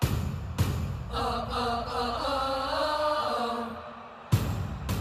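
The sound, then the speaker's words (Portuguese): A loud percussion beat released by FIFA to celebrate the championship, with sharp drum hits at the start and end, and a sustained, bright melodic tone swelling over the rhythm in between. No one speaks. “Este é o som da unidade, o Unity Beat, lançado pela FIFA para comemorar o que representa este campeonato.”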